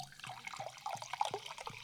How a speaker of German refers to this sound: Oh, ist das etwa ein Wässerchen? Oh, es gibt kein besseres Geräusch, oder? Ah, hm. Als Wasser einschütten. Und zwar mit Kohlensäure, was natürlich der Moderation zuträglich sein wird in dieser Folge.